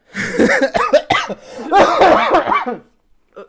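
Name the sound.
coughing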